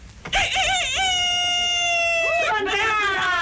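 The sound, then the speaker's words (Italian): A person imitates a chicken, producing a loud, drawn-out nasal squawk that wavers in pitch, then breaks into a few shorter bursts at the end. “Questo conosce solo la lingua dei polli.”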